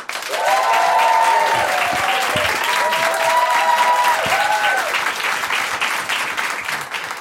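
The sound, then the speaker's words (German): A live audience claps steadily and loudly for about seven seconds, a dense wash of applause with a few rising and falling whoops or whistles mixed in, tapering slightly at the end. “Hallo, wir sind bei Reisen, Reisen, der Podcast vom 1Live Podcast Festival und zum allerersten Mal, deshalb sind wir aufgeregt, sind wir nicht allein, wir sind vor Publikum, das ihr jetzt hört.”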